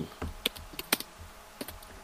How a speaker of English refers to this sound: Ah! Just typing it in the Discord. Oh, no, not Discord. Not in the Discord.